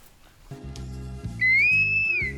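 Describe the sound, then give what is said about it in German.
A short, loud musical jingle: punchy low chords change in rhythmic steps, then a bright whistled melody glides in on top for the final second, with no talking. “was dabei rauskam, das hören wir nach dem Jingle.”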